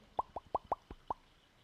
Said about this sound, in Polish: A jak już zaczynacie słuchać, czekaj sobie, naleję wody. Gul, gul, gul, gul, gul.